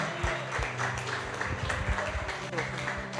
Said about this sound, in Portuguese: Aplauda.